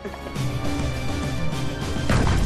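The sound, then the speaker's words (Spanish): An underwater bottle explosion, the bottle sunk about 3 metres deep with a pulley at a jetty until pressure built: a loud, dense rumbling roar with deep low thuds, holding steady and then surging louder near the end, with no voices. “Una explosión tan aterradora como esta, pero a una escala mayor, ¿podría ser capaz de hundir barcos en el Triángulo de las Bermudas?”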